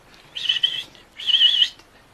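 Two quick bursts of bright, buzzy weaver bird chirping, moderately loud, separated by a brief pause, with no voices present.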